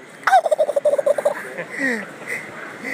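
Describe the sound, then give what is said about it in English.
A turkey call, demonstrated at a deer expo, gives a quick rolling burst of purring, rattling notes, followed by softer, breathy call sounds and faint background noise. “You make a guy in a wheelchair strut and purr.”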